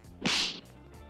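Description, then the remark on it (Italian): A single sharp slap sound effect cracks out loudly, then a bright hissy tail that fades after about a third of a second, leaving quiet behind it. No one speaks. “siamo giunti alla fine, quindi è il momento dello schiaffo della settimana.”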